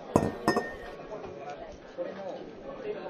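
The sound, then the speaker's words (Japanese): Two heavy glass mugs of medium draft beer are served and set down on a table one after the other, each giving a solid clink, with murmuring voices and restaurant chatter continuing underneath. “お待たせしました生中2つです”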